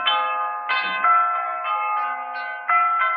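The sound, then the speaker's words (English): The historic Blandford tower bells ring out in a steady peal, each loud strike blending into the lingering hum of the one before, with no voices present. “They've been ringing from that bell tower for three centuries.”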